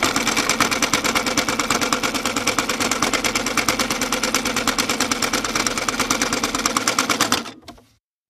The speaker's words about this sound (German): Das war die erste Nähmaschine, jetzt kommt die zweite.